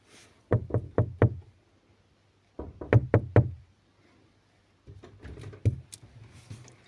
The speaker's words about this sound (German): Und ich gehe jetzt raus und der muss gleich anklopfen.